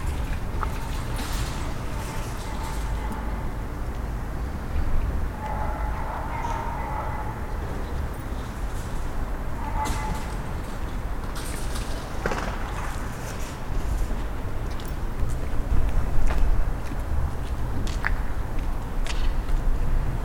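Busy outdoor town square ambience at Riley Square in Bell Green: a steady wash of background noise with scattered footsteps, occasional clattering knocks and faint birdsong, at an even, moderate level throughout.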